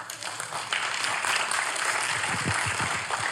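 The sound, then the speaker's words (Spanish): Steady applause from an audience for those in it who are 80 years old, a dense wash of many hands clapping at an even loudness for a few seconds, with a faint hint of voices underneath. “Un aplauso para ellos.”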